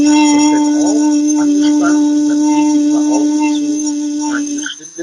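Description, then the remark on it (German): A steady voiced tone is held almost unbroken for about five seconds, loud and close, with faint breathy, fluttery sounds beneath it before it drops away at the end. “einem Ton, der so um die 300 Hertz herumliegt.”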